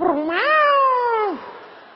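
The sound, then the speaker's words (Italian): A voice imitates a male Persian cat with one long, drawn-out meow that rises in pitch, holds steady, then drops off at the end. It is loud and stands alone with no talking. “Avevo il gatto, il gatto era di mia madre, era un persiano maschio gay, sì, perché a me va bene che il gatto si rechi ma tutto il giorno”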